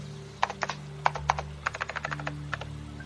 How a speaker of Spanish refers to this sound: Suponga que aprende a escribir en el teclado del computador.